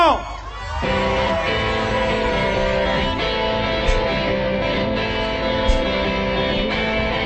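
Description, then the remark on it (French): A live crowd at the Melody Maker roars with sustained cheering, whoops and shouts that swell loudly and stay dense throughout, with a few sharper yells rising out of the noise. “Cher public du Melody Maker, est-ce que vous êtes capable de faire autant de bruit que si on était 200 J'ai dit 200”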